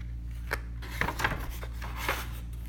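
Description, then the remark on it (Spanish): A crackling bonfire gives off a few irregular sharp snaps and pops over a low, steady rumble, with quieter rustling crackle between them and no voices. “Se produjo un largo silencio, solo interrumpido por el criptar de la hoguera.”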